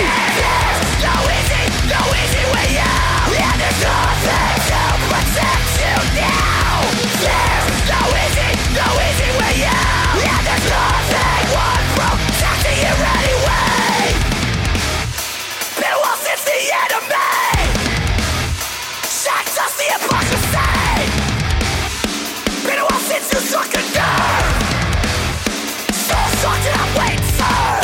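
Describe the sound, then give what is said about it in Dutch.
A loud, energetic hardcore punk song with yelled vocals over a dense wall of distorted guitars and pounding drums, broken by sharp stop-start pauses in its second half. “Eh, namelijk fucking energiek, fucking positief.”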